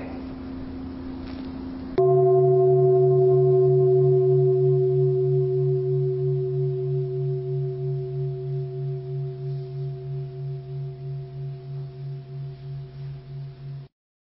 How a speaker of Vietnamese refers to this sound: bây giờ mời vị tri chung thỉnh cho một tiếng chuông và mời các vị cùng lắng nghe